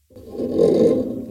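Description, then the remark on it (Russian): A microphone stand scrapes once across a surface, a gritty grinding that swells for about a second and then fades, with no voices. “У, у нас сейчас подставка для микрофона. То есть, по идее, вот это сейчас звук брака, да?”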